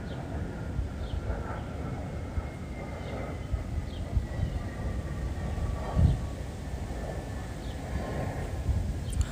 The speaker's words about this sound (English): Planes go so fast. Wow.